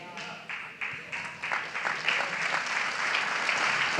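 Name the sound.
audience applause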